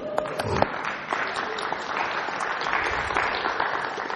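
An audience applauds steadily for about four seconds, a dense, even wash of many hands clapping at a consistent moderate loudness, with no speech over it, applauding the speaker's wife for 22 years of marriage.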